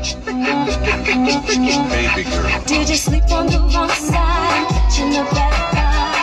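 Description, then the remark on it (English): A loud hip-hop beat plays, with deep booming kick drums landing in a steady, even rhythm under dense, layered instrumentation and crisp high percussion. “But just listen how different that beat is.”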